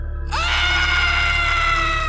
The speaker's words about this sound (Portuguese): E no silêncio se ouve um grito.